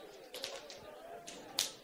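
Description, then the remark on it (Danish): A handful of sharp hand slaps as audience members give each other high fives, scattered irregularly with one especially crisp smack near the end, over a low murmur of people talking. “Så, så øh, giver vi dem en high five, og så siger vi, du er for fed.”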